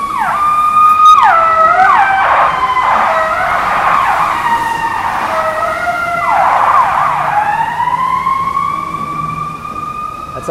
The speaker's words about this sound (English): Sometimes the uh, Chicago fire trucks and ambulances, they are just way too loud. I have to cover my ears.